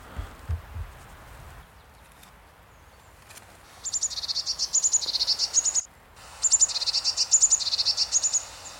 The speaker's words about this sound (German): Das ist der Ruf, den wir eben im Hintergrund gehört haben. Der Ruf der Blaumeise. Die Rufe haben unterschiedliche Funktionen. Der häufigste sind einfach Kontaktrufe, dann aber auch Warnrufe, Angstrufe.